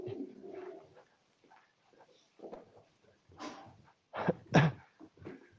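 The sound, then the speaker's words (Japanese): A dog makes a series of short, breathy whines and snorts in irregular bursts, the loudest pair coming near the end, with no talking. “ちょっと待ってください。犬がちょっと。”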